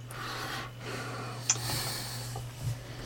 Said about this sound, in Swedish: Oj, nu råkade jag hosta. Jag tror att det var Corona.